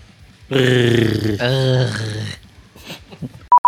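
A deep, harsh growled vocal roars for about two seconds, as in metal singing, then drops to quieter muffled sounds before two short, sharp electronic beeps close it out.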